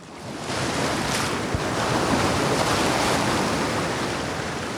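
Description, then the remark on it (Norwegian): Waves of the South China Sea crash and wash steadily onto the shore of Hainan Island, China, in a continuous roar of surf, fairly loud, with a faint rush of wind across the microphone and no voices. “Det vi hører her, det er bølgene fra Sør-Kina-havet som slår inn mot land.”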